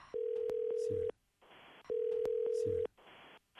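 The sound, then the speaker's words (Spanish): A phone line rings out with a steady, mid-pitched ringback tone, two long buzzing pulses about a second each, separated by pauses filled with hissy line noise, as a call is placed to an agency. “Vamos a llamarle, ¿ok?”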